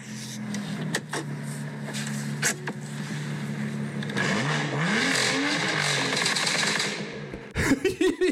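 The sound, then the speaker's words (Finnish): A car engine idles with a steady low rumble, then revs up and down in a couple of rising and falling surges, loud, ending with a few sharp knocks. “Toihan on siis, toi oli se auto, millä mä ollut kerran toimistollakin.”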